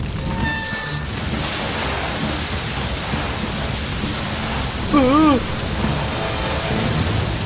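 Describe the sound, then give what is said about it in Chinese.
Water gushes from two fire hoses as firefighters open the water valve to fight a fire, in a steady, loud, broad rushing hiss that runs unbroken from start to finish, with a brief murmured voice rising over it partway through. “好了，艾维斯，打开水闸。”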